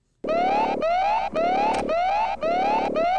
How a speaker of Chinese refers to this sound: 没想到就在这个时候，车站内的火灾警报器却响了起来。